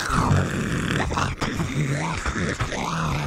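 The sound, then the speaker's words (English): A voice makes exaggerated heavy, groaning breaths into a phone, loud, sustained for a few seconds with rising and falling pitch. “Uh, wow, you're just really breathing heavy in the phone. There's a something going on there.”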